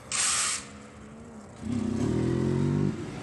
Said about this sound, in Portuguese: Chega a vez das motos. Algumas são empinadas, inclusive por entregadores.